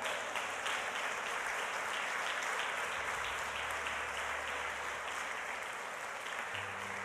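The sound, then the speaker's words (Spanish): An audience applauds the Lord during a sermon, dense clapping from many hands at an even, fairly loud level throughout, with no voices standing out. “Denle un aplauso al Señor, amado hermano.”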